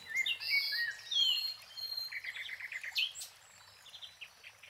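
Several birds sing and chirp together outdoors, with sweeping whistles and a quick run of repeated high notes, fairly close and clear over a faint low background hum.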